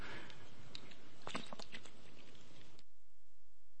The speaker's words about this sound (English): So, before we go on, I need to get a drink of water. It is really, really hot up here.